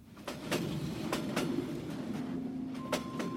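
A train rumbles steadily along the rails with a low continuous roar, punctuated by sharp rhythmic clacks of wheels over track joints and a faint tonal whine near the end. No one speaks.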